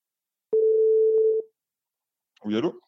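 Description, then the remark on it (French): A telephone tone from an outgoing call to a photographer: one steady, mid-pitched beep lasting about a second, then a pause before a brief voice answers. “On l'appelle tout de suite.”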